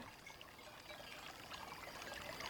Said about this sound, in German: Der Garten ist schön wild und sogar ein Bach fließt quer der Tür.